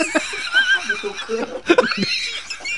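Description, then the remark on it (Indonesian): A person mimics a horse's whinny with a wavering, high-pitched vocal neigh, followed by a few short breathy bursts that sound like laughter. “Ayah di kamar tuh, kuda iya. gadrek, kuda gadrek.”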